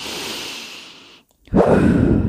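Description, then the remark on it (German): Someone demonstrates quick, shallow, tense breathing, the way people tend to breathe during sex: a hissing breath, a brief silent pause, then a stronger, rougher breath. No talking. “weil wir meistens beim Sex halt dazu neigen, total angespannt zu atmen und total schnell zu atmen und flach, flach, ähm, schnell und ja, einfach so oberflächlich und also so atmen, statt so richtig”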